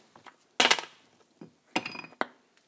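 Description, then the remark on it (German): Ice cubes are dropped into a glass as it is filled with ice, clattering in a few separate drops, each a bright clink with a short rattle, the loudest burst first, then lighter knocks with brief pauses between. “So, dann nehmen wir das Glas und füllen alle Eiswürfel da rein.”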